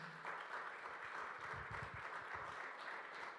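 An audience applauds loudly, a dense, steady wash of many hands clapping that fills the whole stretch, with a few heavier claps standing out near the middle.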